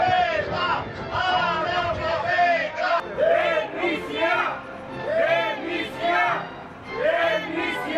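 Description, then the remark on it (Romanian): A large crowd of locals in Constanța, gathered to greet the visiting prime minister and carrying placards with encouraging messages, cheers and chants loudly in rhythmic waves, voices rising and falling together in sustained, enthusiastic ovation with no break. “Constanțenii noștri s-au adunat cu mic cu mare în întâmpinarea distinsei conducătoare a guvernului, aducând fiecare, iată, pancarte cu urări încurajatoare, ovaționând cu putere și plin de emoție.”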